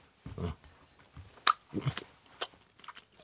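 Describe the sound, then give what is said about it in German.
Chewing and biting a rice paper roll, with a few soft crunchy bites and wet mouth sounds in an irregular rhythm, quiet overall with no talking. “Wollen wir die zweite Reispapierrolle essen?”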